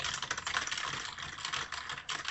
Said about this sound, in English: you hear that? Yeah, that's, that's me you, working. You're dialing them up. I'm working hard on my keyboard.